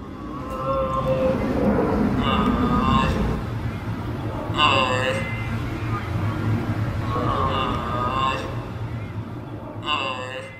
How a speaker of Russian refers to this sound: И это был звук, который издает жираф. Ну, в этом случае маленький жирафчик, который разговаривает со своей мамой.